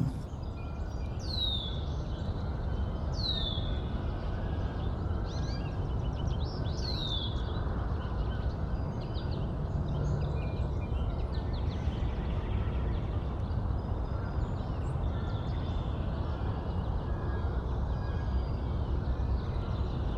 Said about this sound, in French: cet enregistrement-là, il, y, a une belle qualité de réverbération. On, sent la distance avec un, plan d'eau. Hein. On, entend des oiseaux euh, un peu aquatiques. Euh, il, y a une, belle profondeur de, de, chant.